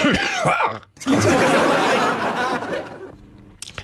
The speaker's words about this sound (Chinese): 朋友们，你们有没有见过主持人，就是说一边主持节目一边咳嗽的啊？今天就能见着。